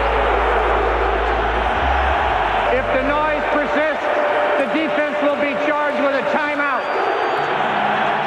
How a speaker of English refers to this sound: And as he inches closer and closer to 2,000, the Lions fans get so loud, they actually delay the game.